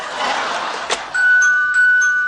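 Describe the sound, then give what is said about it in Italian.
A burst of rushing noise gives way to a loud electronic telephone ring, a steady tone with bright warbling pulses repeating about every half second, clear with no voices. “Uh, telefono degli elogi, era una settimana che non si sentiva”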